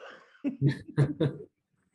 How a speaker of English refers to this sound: Uh oh. That was a burp, but I wanted to make sure it was a dry burp.